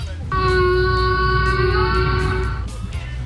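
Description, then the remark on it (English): A single humpback whale call: a long, steady, harmonically rich moan held for about two seconds over a deep, rumbling underwater background, then fading out. “Uh, that would be a humpback whale.”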